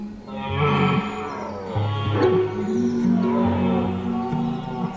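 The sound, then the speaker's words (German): A rutting stag roars in deep, drawn-out bellows, several long groaning calls running almost back to back, loud, with no talking. “Manchmal hört man sogar ihr Geschrei in den Wäldern.”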